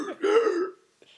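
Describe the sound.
A video game voice clip, played when a sign flips to 'future', imitates a man gasping for breath while saying 'future': one drawn-out croaky syllable that rises and falls, then a brief breathy rasp after a short pause.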